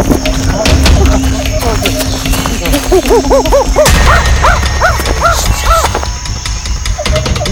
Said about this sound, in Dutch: Kom, honden! De honden! Ze moeten achterna.